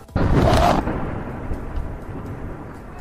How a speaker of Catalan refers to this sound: Un altre bombardeig, aquest cop en ple centre de la ciutat, just al costat d'on érem nosaltres. Només avui hi ha hagut 50 atacs com aquest arreu del país.